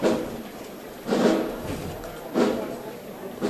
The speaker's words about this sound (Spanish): No se dan ánimo los costaleros. Micrófono en respiraderos. El racheo.